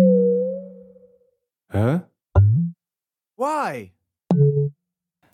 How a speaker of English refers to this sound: now we're going to listen to a Sonic brand book that you put together with Philips called the User Interface or UI Medley